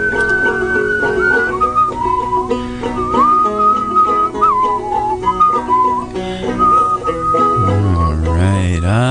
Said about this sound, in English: And you can whistle too if you whistle along.